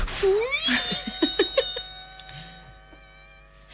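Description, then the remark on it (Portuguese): A voice imitates an old valve television warming up before the picture appears: a rising whistling whine with a steady high hum, then a quick series of bubbling, pulsing vocal bursts, fairly loud. “Carregava-se no botão, começava a ouvir-se um som, algo algures entre o apito para chamar quem? Exato. E algo a levantar fervor, uma coisa tipo.”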